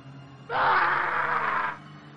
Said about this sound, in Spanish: El alarido de Bucky fue breve cuando una hoja atravesó su pecho y lo atrajo hacia las mandíbulas.